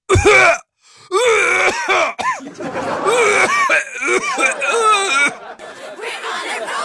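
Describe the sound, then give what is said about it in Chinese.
A voice puts on an exaggerated, theatrical 'severe' cough, imitating a student faking illness to skip class: loud raspy bursts that give way to strained, groaning, wheezy hacking, clearly fake and overacted, with no ordinary speech. “普通的咳嗽是，严重的咳嗽，更狠的。”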